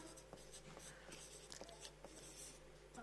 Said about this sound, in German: Okay, jetzt merke ich mal, wie das schwer ist, wenn man hier schreibt, wenn das immer die anderen sagen die Schrift ist nicht gut,